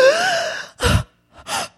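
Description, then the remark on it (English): A person imitates a woman repeatedly gasping in shock: a drawn-out, voiced gasp followed by two sharp, breathy intakes with short pauses between, fairly loud, with no words spoken. “oh my god she just was like she just stood and stared and gasped over and over she was like”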